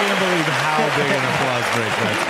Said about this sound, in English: can't believe how big an applause break that's got. A Mr. T joke.